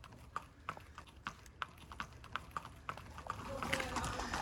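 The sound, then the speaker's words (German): Racehorse hooves clip-clop at a steady walking pace across a hard racing-stable yard in the dark early morning as the first lot of horses heads out, a string of sharp, evenly spaced hoofbeats that grow slightly busier and more cluttered toward the end. “Wir sind im Rennstall von Henk Rewe und deine Pferde ist das das erste Lot, was unterwegs ist”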